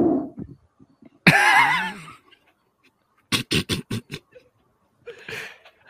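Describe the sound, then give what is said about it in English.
A loud, buzzy fart blasts through a long rubber hose, wavering in pitch for under a second, followed by a quick string of short sharp bursts and a softer noise at the end. “I mean, as long as the fart itself has got decent Good sound, it should transfer.”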